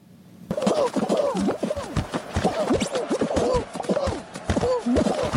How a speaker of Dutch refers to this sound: het ging specifiek om het tegen elkaar botsen van de poppetjes